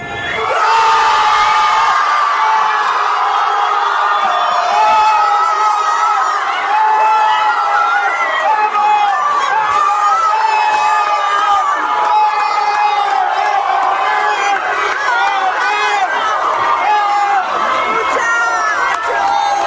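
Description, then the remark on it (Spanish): A crowd of football fans in the "comedor de los milagros" dining hall erupts in sustained, loud cheering and shouting after Leo Messi's penalty goal against Tottenham's goalkeeper in a final, a dense roar of many overlapping voices with high whoops holding steady for about twenty seconds. “Es difícil describir lo que se ve y se escucha en el comedor de los milagros.”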